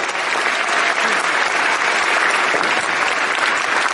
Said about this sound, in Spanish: Des un fuerte aplauso por eso, por favor.